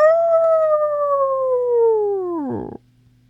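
A big grey wolf lets out one long, loud howl that holds a steady pitch, then slides downward and breaks off in a rough, ragged tail before falling silent.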